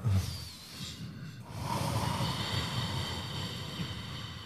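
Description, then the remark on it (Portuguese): Slow, audible ujjayi breaths drawn through a constricted throat, with air passing at the soft palate, giving a soft, rushing ocean-like hiss, with a brief pause before a long, steady exhale. “Vamos fazer a respiração indiaia, que é ela com o fundinho do, do sonzinho do mar, assim, ó.”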